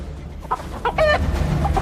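A chicken clucks in a few short, irregular bursts, one slightly longer and louder in the middle, over a steady low background rumble with no talking.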